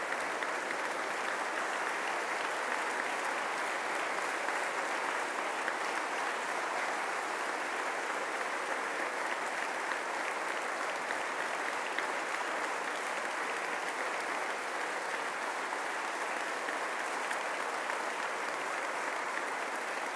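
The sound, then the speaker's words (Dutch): Sustained audience applause for Flemish politician Geert Bourgeois, a steady dense wash of many hands clapping at an even level for about twenty seconds, with no voices standing out above it. “En dat is een verdiend applaus, Geert.”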